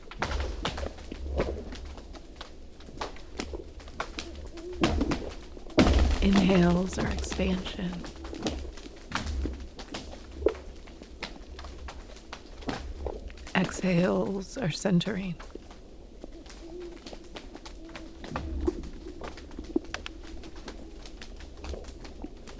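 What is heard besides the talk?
owl hooting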